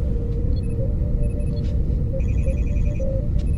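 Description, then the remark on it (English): A steady low engine-like hum drones throughout while scattered electronic beeps and chirps sound overhead, including a rapid trilling burst of bleeps midway, like starship bridge ambience, from a ten-hour relaxation meditation recording. “It's a relax meditation t- uh, tapes have been around forever.”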